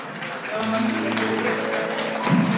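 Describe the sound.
Loud, steady applause from a crowd, a dense crackling wash of clapping that holds for a few seconds, with some voices murmuring underneath and a brief swell near the end.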